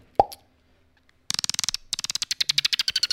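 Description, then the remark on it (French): A person imitates a dolphin call with the mouth: one sharp pop, a pause, then a rapid train of bright, rhythmic clicks and chirpy pulses, fairly loud. “C'est un dauphin.”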